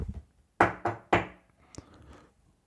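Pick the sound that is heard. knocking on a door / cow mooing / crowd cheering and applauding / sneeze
knocking on a door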